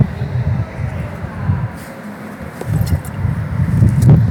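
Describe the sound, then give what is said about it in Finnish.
Strong wind blowing against the microphone and swaying a tree, a deep, rumbling roar with uneven gusts that surge and ease, growing louder toward the end. “Tuulee. Ihan hirveä. Tuulee.”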